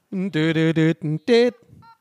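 A quick run of five loud electronic beeps, each a short buzzy tone with a slightly different pitch, played close up and followed by a faint, fading trail of softer tones.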